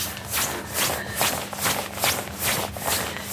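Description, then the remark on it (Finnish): Padded winter trousers rustle in a steady walking rhythm, a swishing brush of fabric roughly twice a second, fairly loud and with no talking over it. “Seuraavat kaksi minuuttia kuuntelemme toppahuusien kahinaa.”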